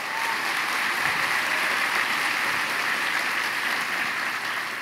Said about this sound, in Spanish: ¿No les parece a ustedes glorioso? Glorioso. Aplauda, aplauda.